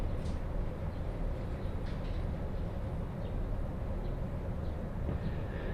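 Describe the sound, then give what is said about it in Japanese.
Steady onboard rumble of a moving Joban Line local train bound for Iwaki, running from Haranomachi toward Tomioka, a continuous low roar with faint rattles and occasional light clicks, heard from inside the carriage with no one speaking. “耳で楽しむ鉄道旅 常磐線 原ノ町→富岡”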